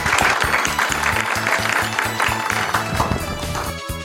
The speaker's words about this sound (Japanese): 大きな拍手でお送りください。